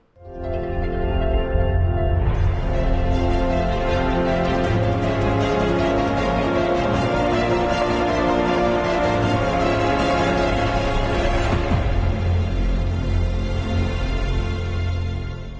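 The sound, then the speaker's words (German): The extended cinema version of Netflix's intro sound-logo: a swelling orchestral fanfare with deep sustained bass, building brass and strings into a loud cinematic climax that holds for several seconds before easing slightly at the end. “Die haben jetzt wirklich Geld ausgegeben und das bei Hans Zimmer ummodeln lassen zu einem, ja, praktisch Verleiher-Soundmark.”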